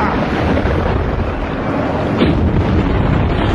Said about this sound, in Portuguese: Chama isso de tempestade! Sopra, seu miserável! Sopra!